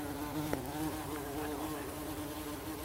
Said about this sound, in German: Warte, ich kuschel mal mit der Hummel. Ja.